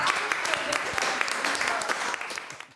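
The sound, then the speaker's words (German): A burst of applause from a small group of friends drinking together, cheering a man who bravely drank, dense irregular clapping sustained for a few seconds before tapering off, with some voices mixed in. “Ein Applaus”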